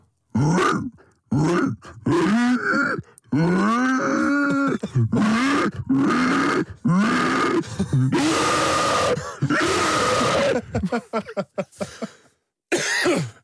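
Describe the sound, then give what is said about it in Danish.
A person imitates a pig with a long series of loud, inhaled grunts and snorts, made with a finger pressed into a loose cheek while sucking air inward; rhythmic and throaty, in quick bursts with brief pauses between them. “stikker så en, en finger ind i, i kinden. Øh, meget løse kinder skal man have.”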